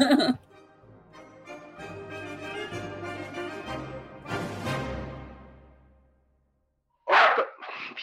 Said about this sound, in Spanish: Pero ¿sabes qué es lo peor? Que no está ladrando a nada. No sé qué está pasando en el edificio, que todos los perros están ladrando, todos.